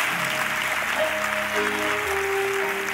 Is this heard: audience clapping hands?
yes